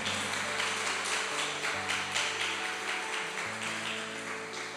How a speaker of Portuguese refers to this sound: Glória a Deus, aplauda ao Senhor.